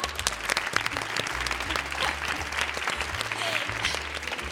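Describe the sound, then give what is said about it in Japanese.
Steady audience applause at a public recording in Ōda, a dense patter of many hands clapping at once, fairly loud, with no voices breaking through. “私のお父さんが経営していますさん拍手です”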